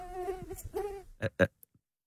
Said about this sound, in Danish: Nej, nu tror jeg sgu, den kommer til. Det er jeg ikke. Vi kommer til at slå myggen ihjel.